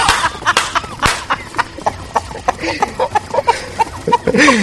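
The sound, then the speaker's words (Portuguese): A busy run of chicken clucks, rapid and overlapping, with sharp bursts and short squawks, set against a bright musical background that fills the whole stretch, forming a show's opening jingle. “A abertura mais rápida do RP Guacha.”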